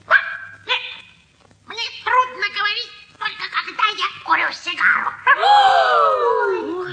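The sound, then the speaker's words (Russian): A human voice imitates the puppy Albert trying to talk, with a run of high, whiny yips and bark-like bursts, ending in a longer, drawn-out whimper. “Казалось, говорил сам щенок.”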